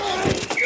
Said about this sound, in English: Ah, the sweet sound of sports you love from Sling. The collide of football pads.